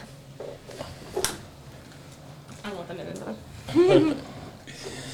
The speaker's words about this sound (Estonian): ja vahet, vahet, vahetame mikrofonid ära, siit kõlab natuke paremini ja sina kui külaline peaksid saama endale kristallkõlaga selge hääle.